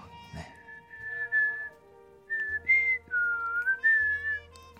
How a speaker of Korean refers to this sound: 휘파람 잘 부나요? 저는 휘파람 잘 부는 남자가 좋던데